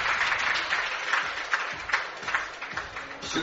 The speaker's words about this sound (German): dann auch äh, Beifall vom Saarbrücker Publikum, nicht nur, weil er mal hier gespielt hat, sondern weil die einfach fair sind ja, wie generell in der GFL und in der GFL 2 eigentlich Usus.